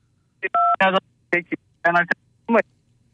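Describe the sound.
Several short electronic phone keypad beeps, clear and fairly loud, pressed in an irregular sequence with brief gaps between them, mixed with bits of muffled voice.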